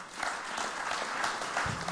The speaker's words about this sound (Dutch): De derde van vanavond mag ik een hartelijk applaus voor Wim Boonstra.